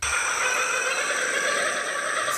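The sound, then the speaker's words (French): A kookaburra's call used as the voice of a TV dolphin: rapid, shrill, continuous chattering, loud, running steadily for a couple of seconds with no one talking. “c'est en fait le son d'un oiseau pas du tout d'un dauphin, un martin chasseur”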